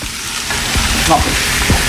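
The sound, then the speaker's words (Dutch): Cabbage stir-frying in a hot pan, a steady sizzling hiss with a few soft knocks and scrapes as it's tossed, continuing throughout. “Oh, je moet die, eh, even een vraagje, je moet die kool echt roerbakken, die stoom die roerbakje echt.”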